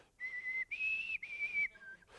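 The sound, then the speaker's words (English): A person attempts the Katniss Everdeen whistle from The Hunger Games, whistling a short four-note tune. The clear tones are steady and held, rising slightly after the first note and ending on a lower, softer note, with no talking. “I can't do the whistle”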